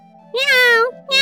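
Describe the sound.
A voice imitates the meow of Ami, a cat in a children's Halloween story: one long, bright, drawn-out mew with a slight pitch bend, followed by the start of a second mew, loud over a low steady hum.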